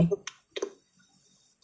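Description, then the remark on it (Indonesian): A plastic cilok snack bag crinkles in a few short, crackly bursts separated by brief pauses, fairly quiet and with no talking over it. “apa sih suara plastik cilok kamu masuk”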